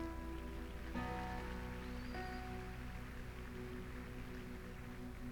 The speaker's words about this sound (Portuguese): Pode aplaudir isso aqui.